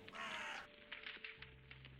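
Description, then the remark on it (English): On a grey, cloudy day at a funeral, a crow gives a loud, rasping caw, then falls silent while scattered sharp crackles and pops from a burning funeral pyre continue against a low steady hum, with no voices. “The soundtrack to this grey, cloudy day was the sound of his pyre burning and the occasional harsh calls of crows.”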